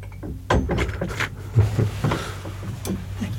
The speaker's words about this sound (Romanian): ești cumva la ușă? Da. Vrei să intri? Da. Haide. Deschid-o.